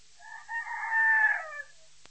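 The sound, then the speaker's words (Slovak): A single rooster crows once from somewhere far off, a drawn-out, slightly muffled cock-a-doodle-doo that swells and fades against a quiet background, with no voices. “V diálke zakikiríkal prvý kohút.”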